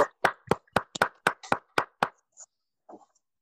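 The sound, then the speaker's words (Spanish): Brisk, evenly spaced hand claps as applause for doctor Crespo, about nine sharp claps in quick succession, fairly loud, then the clapping stops and a couple of faint stray sounds trail off. “A partir de ahí ha habido más nombres, pero yo creo que un aplauso para el doctor Crespo sí que se merece, ¿no?”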